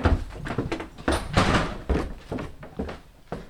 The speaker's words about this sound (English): Dave opens the door to his freezer.